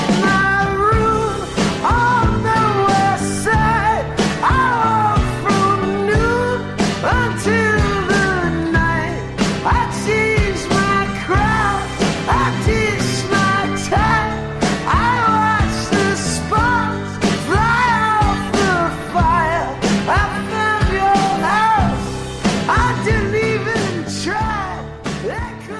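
An indie rock song, the lead single from a duo's joint album, plays loud and steady throughout, a sung vocal melody riding over full band accompaniment with a regular driving beat and no talking.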